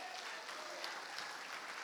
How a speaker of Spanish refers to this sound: Dele su mejor aplauso al Señor, hermano.